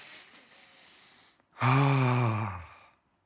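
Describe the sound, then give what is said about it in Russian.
A triple breath drawn in through the nose as a breathing exercise, a brief pause, then a loud, voiced sigh as the air is pushed out through the mouth, fading away at the end. “это дыхание, это там сделать тройной вдох носом, выдох ртом”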